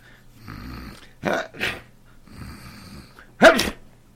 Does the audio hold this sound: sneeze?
yes